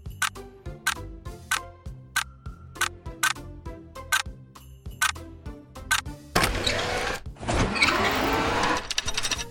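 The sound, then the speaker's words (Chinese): A clock's minute and second hands tick in a steady, even rhythm of sharp clicks for several seconds with no talking, before a louder, dense rushing sound abruptly takes over. “听着时钟的指针，一分一秒滴滴答答的声音”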